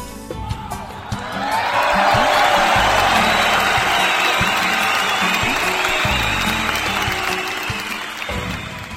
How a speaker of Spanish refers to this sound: un fuerte aplauso para ellos, público conocedor.